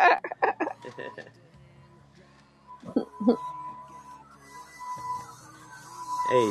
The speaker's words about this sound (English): So she's washed it and the tissue's gone everywhere over the floor. So she's having to hoover up the tissue everywhere.